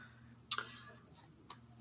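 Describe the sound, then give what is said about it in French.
A car's turn signal ticks with sharp, evenly spaced clicks about a second apart over a low steady hum with no talking. “et puis bien sûr à la fin euh, signaler son intention avec son clignotant.”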